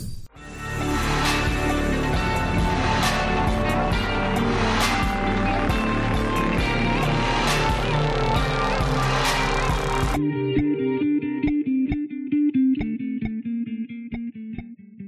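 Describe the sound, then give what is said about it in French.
An upbeat instrumental opening theme with a steady beat and bright, layered synth tones plays loudly, then the drums cut out abruptly and a softer, sustained melodic tail rings on to the end. “Générique.”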